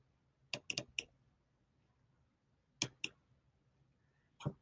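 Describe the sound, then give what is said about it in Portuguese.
Several sharp computer mouse clicks, selecting skin tissue slides on screen, come in small bursts: three or four quick ones, a pause, a pair, then a single click, over a quiet background hum with no talking. “Bom, então, clicando, você, clicando aqui em pele, você vai ver essas lâminas, as, em, esse aqui são só o nome das lâminas.”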